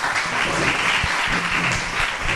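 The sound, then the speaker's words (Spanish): A crowd claps steadily for a couple of seconds in applause for the guests, a dense, continuous wash of many hands at fairly loud, even volume with no talking over it. “Un fuerte aplauso para ellos.”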